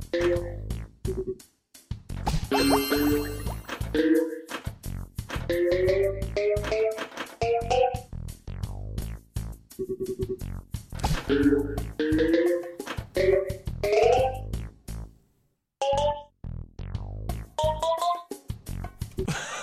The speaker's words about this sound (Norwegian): Men nå skal vi høre på lyden fra en bane i Peggle.